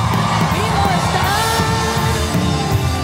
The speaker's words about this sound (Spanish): Alguien grita?